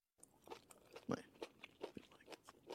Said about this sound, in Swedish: Men du, mm. nu tog du en tugga av den här godisen igen. Hur tänkte du?